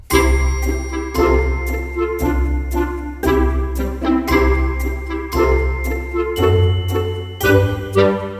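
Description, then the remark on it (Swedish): A short instrumental thinking-music jingle plays on its own, with a steady beat, a sustained bass line and bright tinkling notes repeating in a bouncy loop, fairly loud with no voices. “Kan vi lyssna lite på den där tankemusiken från början medan vi hittar på ett slut?”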